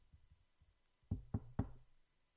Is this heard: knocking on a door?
yes